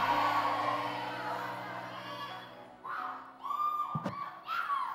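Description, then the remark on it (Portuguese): A large audience of women shouts together, a dense roar of voices that dips briefly, then rises again in loud, sustained bursts of high-pitched cries. “É muito mais do que um grito. Um grito não vai te levar a muita coisa.”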